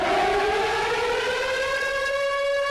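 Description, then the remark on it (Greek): A loud air raid siren wails steadily over the city of Lviv, Ukraine, its rich harmonic tone rising and holding for nearly three seconds with no voices heard. “Πριν από λίγο είχαμε και πάλι τον ήχο των σιρήνων εδώ στην πόλη Λβίβ.”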